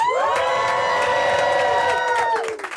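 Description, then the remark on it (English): A lively live audience at the Robert Graham store on Abbot Kinney in Venice Beach, January 2019, cheers and whoops loudly, with sustained high-pitched yells layered together for a couple of seconds before tapering off near the end. “Uh, we are live here in January 2019 at the Robert Graham store on Abbot Kinney in Venice Beach, and we have a live audience. Why don't you make some noise?”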